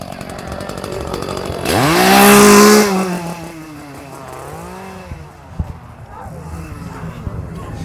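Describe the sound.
A chainsaw engine at a scare attraction revs up sharply to a loud, rising whine, then sputters back down to a rough idle, with indistinct voices and crowd noise around it.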